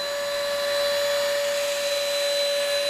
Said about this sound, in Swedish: han vässar skridskor ännu.